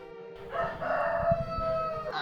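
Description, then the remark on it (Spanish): A rooster crows once, a loud, drawn-out cock-a-doodle-doo lasting about a second and a half, clear with no one talking. “Inmediatamente bajaron al río con la señora llevando consigo los animales y tan luego llegaron al río provocaron que los gallos cantaran, que los guajolotes clucluteran y los burros rebuznaran.”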